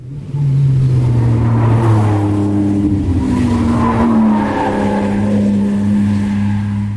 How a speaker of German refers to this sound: Das klingt nach maximaler Beschleunigung in einer Kurve. Für mich klingt das so, dass man da gute Nerven braucht.